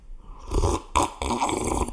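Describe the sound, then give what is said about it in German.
Someone drinking water in noisy gulps: wet swallowing sounds and a sharp burst midway, then a steady run of slurping swallows to the end. No talking. “Nein, muss aber, ein bisschen Wasser trinken, ich höre dir zu.”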